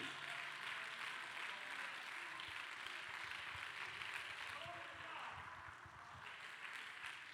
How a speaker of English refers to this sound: Oh, somebody give the Lord a hand clap of praise today.